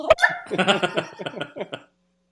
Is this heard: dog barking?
yes